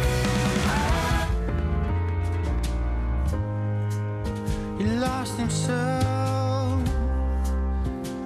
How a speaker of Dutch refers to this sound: die is terug met een liedje. Ehm, en het is een voorproefje op een aankomende EP. En het klinkt zo,